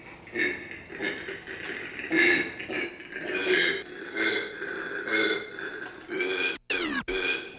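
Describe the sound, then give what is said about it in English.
A male koala in an enclosure with a female bellows territorially to warn other males away, in a rhythmic series of deep, rasping grunts, snore-like and belching, each pulse rough and resonant, ending in a couple of abrupt rising gasps. No one speaks. “So I was totally unprepared for the ferocious sounds that these marsupials are capable of making.”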